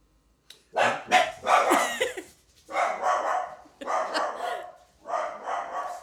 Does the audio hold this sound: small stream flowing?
no